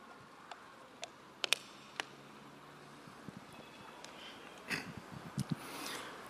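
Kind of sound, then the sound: human body sound, speaker drinking water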